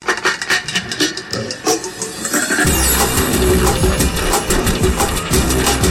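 A chainsaw sputters at first, then roars to life partway through and keeps running loud and close, a steady, buzzing mechanical drone with no talking.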